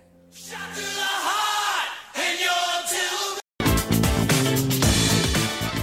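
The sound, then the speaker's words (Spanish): A rock song starts with loud, shouted group vocals, stops abruptly for a split second, then crashes into a full band with pounding drums and driving electric guitars. “Ahora vamos a escuchar un poco de música, ¿les parece?”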